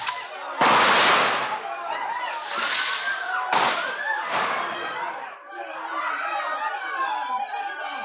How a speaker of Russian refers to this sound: Гугеноты оказали решительный отпор, и тогда аркебузиры герцога открыли стрельбу по толпе.